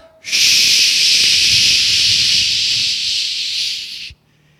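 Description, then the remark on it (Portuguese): A voice imitates the running jet turbines of an airplane lined up on the main runway, a loud, steady, high-pitched hiss held for about four seconds, then cut off abruptly. No words are spoken. “Ele foi, colocou o avião direitinho e turbinas ligadas.”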